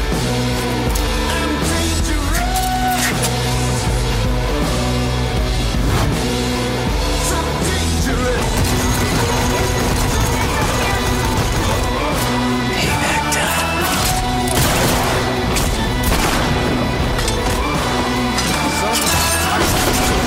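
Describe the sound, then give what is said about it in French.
The trailer for the video game Desperados 3, by Mimimi Games and published by THQ Nordic: a loud, continuous musical score with repeated crashes, bangs and sharp impacts like gunfire cutting through, and a few voices mixed in. “Voilà pour le trailer euh, de Desperados 3.”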